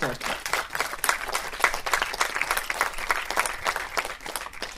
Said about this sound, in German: Also großen Applaus